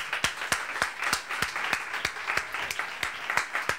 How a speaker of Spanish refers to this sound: Y damos gracias a Dios por la vida de ustedes, padres. Queremos darle un aplauso fuerte.